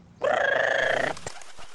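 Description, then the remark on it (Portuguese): A talkative parrot lets out one loud, harsh, drawn-out squawk lasting about a second before it cuts off, leaving a faint background hush. “Ora, ora, quem é papagaio tagarela aqui, hein?”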